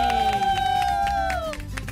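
A steady run of rhythmic hand claps from a small group, joined by a long, high sustained cheering whoop that slides downward near the end, with crowd babble beneath.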